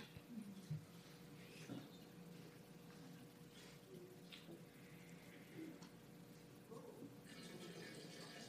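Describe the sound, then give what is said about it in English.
Water is poured into a container in a soft, continuous trickle with small splashes and gurgles, growing a little brighter and fuller toward the end. No one speaks. “And this water represents home, healing, rebirth, and courage.”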